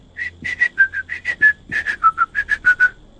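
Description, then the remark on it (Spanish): A person whistles a short melody, imitating a tune, about fifteen clear notes in a quick, bouncing rhythm, rising and falling in pitch, with no talking over it. “Eh, esa melodía silbada, una voz, o sea, una voz, perdón, un silbido, que, bueno, Em, que, hace más o menos así.”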